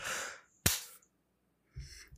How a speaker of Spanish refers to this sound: palmada con bostezo.